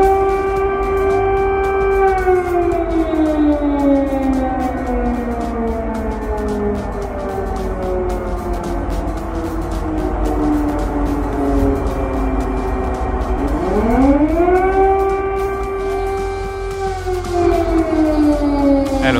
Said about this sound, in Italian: è ormai da allora, dal 24 febbraio, che queste sirene ci accompagnano.